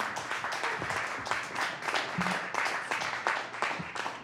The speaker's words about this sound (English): All right, another round of applause, real quick.